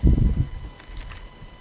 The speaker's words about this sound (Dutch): Ach, geknoei, Mijn handen doen het niet zo goed meer. Nou, dat is wel verdrietig als je niet eens je Bijbelblad meer kan omslaan.